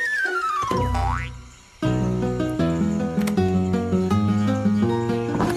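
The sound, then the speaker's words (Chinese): A springy cartoon boing sound effect as a character jumps very high to reach a key: a quick pitch sweep that drops then springs upward, followed by a bright, bouncy musical jingle that carries on with steady rhythm. “我们快帮步子跳得很高很高吧！大喊：“boing boing！”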